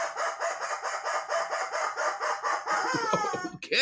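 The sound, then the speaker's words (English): A rubber chicken toy lets out a long, loud, wheezy squawk that pulses rapidly for several seconds before breaking into a strained, whistling finish, heard alone. “And the rubber chicken says.”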